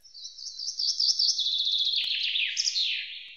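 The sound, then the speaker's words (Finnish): A continuous, high-pitched bird song with rapid warbling trills that slowly descend in pitch over a few seconds, clear and steady with no voices. Recorded by a field sound recorder used to capture birds, bats and frogs. “Ja sitten meillä on tosiaan nämä ääninauhrit, joiden avulla kuullaan linnut, lepakot, sammakot ja sitten riistakamerat, joiden avulla nähdään sitten ää, lähinnä nisäkkäät.”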